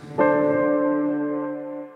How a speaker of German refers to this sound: Sie lauschen. Der Hohepriester hatte extra eine Glocke am Bein, weil man wusste, Gott ist heilig.